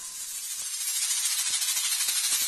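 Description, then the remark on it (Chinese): Snakes hissing in a cave in a steady, continuous airy rush of bright noise that builds slightly louder over a couple of seconds, with a few faint low thumps underneath and no voices. “更多的蛇，榕鼠看到蛇就会害怕。”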